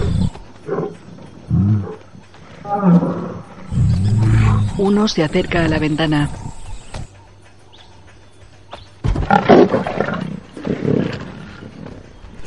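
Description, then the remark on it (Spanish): Lions roar loudly in two long, rumbling bursts outside the door of a house, with growls in between, while a voice speaks briefly over the start. “Un león está ante la puerta de la casa.”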